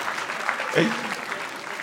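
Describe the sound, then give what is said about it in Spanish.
A crowd applauds in a dense, steady patter of clapping for about two seconds, with a brief vocal whoop or cheer rising out of the noise partway through. “Entonces, hay que darle un aplauso”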